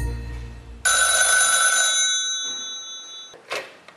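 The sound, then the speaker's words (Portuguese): A loud mechanical bell of an old rotary-dial telephone rings in one long metallic burst that fades out slowly, then gives a brief second jangle near the end. No one speaks. “Sabe aquele telefone velho que você disca?”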